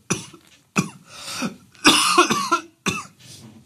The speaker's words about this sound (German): Ah, Entschuldigung. Oh, das schneide ich nicht raus, damit die Leute dein, dein rotgesichtiges Husten leiden.